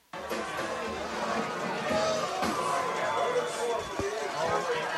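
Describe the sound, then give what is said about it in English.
A loud, steady crowd roar at a football game during the second quarter, with dense overlapping chatter and cheering sustained throughout at high volume. “Crowd is loud, and we are back in the second quarter oh.”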